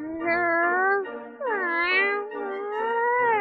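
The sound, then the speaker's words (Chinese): A cat gives three long, drawn-out meows in close succession, each one wavering in pitch with a rising and falling, whiny tone. The meows are loud and clear, with no talking. “虎喵，出来！虎喵，是不是你？”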